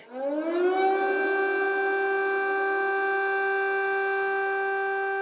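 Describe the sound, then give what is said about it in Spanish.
An air-raid siren, played from a website open on a mobile phone, winds up quickly from a low pitch, then holds one loud, steady wailing tone for several seconds, with no voices over it. “Em, es significativo porque el sonido es una alarma antiaérea que se mantiene durante todo el tiempo que estás mirándolo,”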